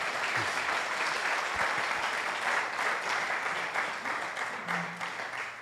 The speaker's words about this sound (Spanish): Eso merece un aplauso a la palabra de Dios.